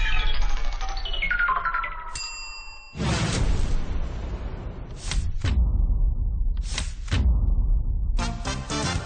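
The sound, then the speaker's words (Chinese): A phone rings late at night with an incoming call from an ex-girlfriend, in the film 《前任攻略》: a melodic ringtone of descending tonal notes and then a brief steady chime, followed by loud, noisy bursts of sound. No one speaks. “都这么晚了，还给你打电话？”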